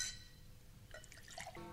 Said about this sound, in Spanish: Muriel sirve los licores.